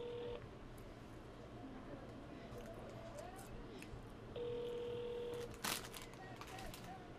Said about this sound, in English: Nine times out of ten, he he he not answering the phone. If it goes like that, it rings that many times. He not answering the phone.